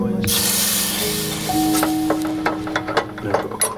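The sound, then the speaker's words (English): A loud, sustained hiss and sizzle of a hot, freshly soldered pipe joint being quenched with water, with steady tonal squeals and a few clicks and knocks toward the end. “So the solder's complete there, so quenching it won't spoil the joint. Nice noise.”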